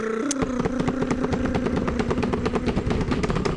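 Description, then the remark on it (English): A rapid, steady drum roll of dense, evenly spaced strokes rattles on at constant loudness for a few seconds, with a low droning tone underneath and no talking. “I'm actually gonna I'm actually gonna take this time to introduce uh drum roll please.”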